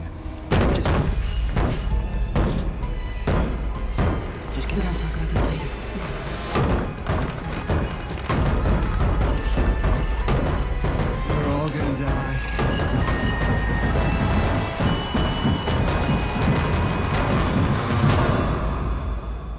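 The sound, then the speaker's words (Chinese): Someone pounds on a door again and again, with loud, heavy, irregular thuds booming through the whole stretch while voices are heard beneath the banging. “如果叮当叔和夜行者都前往医务室，那么在医务室外面砸门的是谁？”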